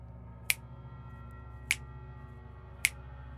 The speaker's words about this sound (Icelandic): Í hvert sinn sem hún klappaði eða smelti fingrum komu samstundins jafn mörg dularfull högg. Hún smelti tvísvar og það var bankað tvísvar. Hún smelti þrísvar